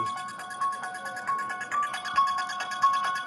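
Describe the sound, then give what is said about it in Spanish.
A phone ringtone plays the theme from the film Halloween, a tinny, repetitive horror-movie-style melody, quick electronic notes pulsing in a steady rhythm at moderate volume with no one speaking. “la quiere su teléfono porque obviamente le, tiene que contestar”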